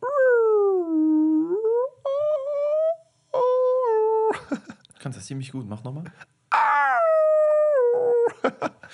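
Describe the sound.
A person mimics whale song with long, gliding, moaning tones that rise and fall in pitch, fairly loud, with another voice briefly speaking in between.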